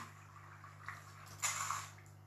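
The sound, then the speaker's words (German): A short burst of splashing water in a video game rises over a steady low hum, with a softer watery wash just before it and the splash trailing off over about a second, fairly quiet. “Ab dafür. Wasser MG. Okay, der war clean.”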